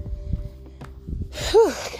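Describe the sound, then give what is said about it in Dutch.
Heavy, breathy exhalations of someone panting while walking up and down hills in France, with a soft low rumble of movement beneath and a louder huff of breath near the end. “Dus als je denkt, waarom zit ze te hijgen in mijn oor?”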